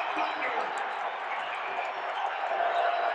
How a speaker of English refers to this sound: Look at this crowd. They've come to their feet. They can feel it. Lob. Rudy Gobert at the rim. Slam dunk. Timeout Thunder. Oh, listen to the crowd.